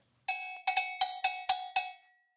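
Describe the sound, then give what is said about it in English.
A breakfast bell rings out with about six quick, bright metallic clangs in an uneven rhythm, each stroke ringing briefly before the next, with no voices. “At the first peal of the breakfast bell, she sprang up and dressed briskly.”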